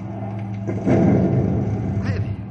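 A steady low engine drone of an air freight plane circling over the field runs throughout. About a second in comes a heavy, rumbling mechanical jolt as the landing gear, released from its horizontal lock under full hydraulic pressure, slams into lock. A louder rushing roar follows.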